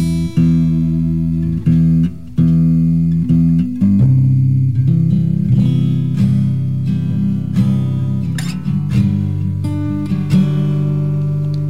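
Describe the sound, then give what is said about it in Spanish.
An instrument being tuned before a song is played: loud sustained notes held for a few seconds each, broken by short pauses as the pitch shifts and settles. No one speaks. “vamos a afinar aquí un toquecito.”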